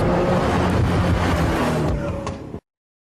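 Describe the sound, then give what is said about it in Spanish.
A bus rumbles loudly past on the street, its deep engine roar steady for a couple of seconds before the sound cuts off abruptly. “Eh, pasó un camión. Ese colectivo que pasó.”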